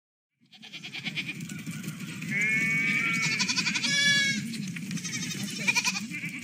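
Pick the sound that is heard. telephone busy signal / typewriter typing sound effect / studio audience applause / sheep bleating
sheep bleating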